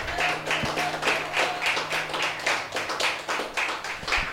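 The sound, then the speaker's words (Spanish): A church audience at Bread Life church claps together in praise to God in a steady rhythm, loud, bright bursts of many hands repeating roughly twice a second, with a faint low hum underneath and no talking. “Iglesia, damos fuertes glorias a Dios, fuertes palmas al Señor.”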